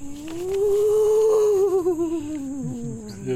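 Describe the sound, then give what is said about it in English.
A person performs a spooky moan with their voice for a musical piece: one long, sustained tone that swells, slowly sinks in pitch and wavers toward the end, loud, with a brief laugh and word at the end. “That was moaning sound.”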